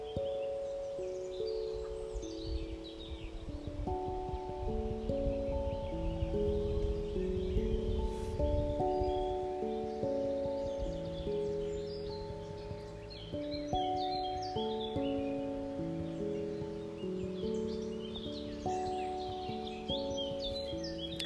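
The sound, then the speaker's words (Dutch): Small birds chirp and whistle in scattered bursts throughout, layered over a soft, sustained musical backdrop of slowly shifting tones. No one speaks. “Hoor de vogeltjes fluiten.”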